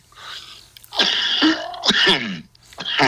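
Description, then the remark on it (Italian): A loud sneeze bursts out after a soft breathy lead-in, followed by a few quick nasal exhalations and sniffs, with no talking. “Scusate. Salute!”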